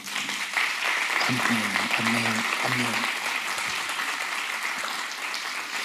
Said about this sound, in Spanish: Si usted lo cree conmigo, dele un aplauso al rey.